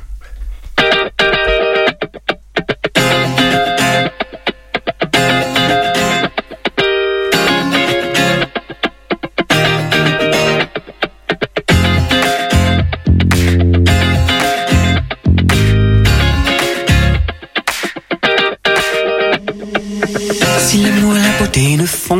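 A pop song by a local artist plays on FM radio during a musical break, loud and continuous, with dense layered instruments, a steady driving beat and effect-heavy, slightly distorted synth tones, and no talking over it.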